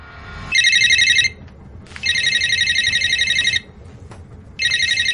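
A mobile phone ringtone trills loudly in repeated electronic bursts, about a second to a second and a half long, separated by short pauses, with faint background noise between rings.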